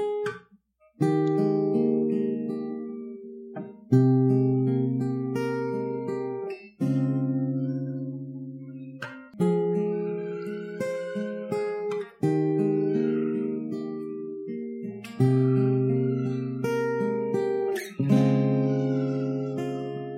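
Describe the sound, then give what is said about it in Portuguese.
A guitar plays loud, ringing chords, a new chord struck roughly every two to three seconds and left to sustain between strikes, with no voices over it. “Me ajude dedilhando um acordezinho aí, Felipe.”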